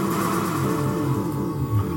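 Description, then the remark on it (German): Continuous layered instrumental music, a Bach fugue, with dense interweaving tonal lines, steady and moderately loud, playing alone without any voices as background music in a Konami video game. “Was richtig cool ist, man hört ja im Hintergrund die Fuge von Bach.”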